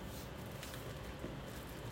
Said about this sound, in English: It's raining right now. I wonder if that rainbow's out there right now.